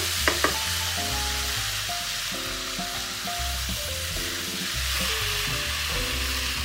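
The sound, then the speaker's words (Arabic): Steady sizzling of raisins frying in hot fat as they begin to soften and turn glossy, a dense crackling hiss that holds evenly throughout, with a couple of faint clicks near the start and no one talking. “بتعوم في البحر صوت الزبيب هو شكله ابتدى يطرى معايا شويه”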